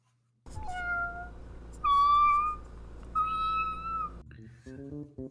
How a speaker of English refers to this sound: Well, at least the household podcast kitties sound healthy. No such thing as feline COVID is there.